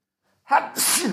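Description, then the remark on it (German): A single sharp sneeze, a brief intake followed by a loud explosive burst of breath, with no talking around it. “Gesundheit.”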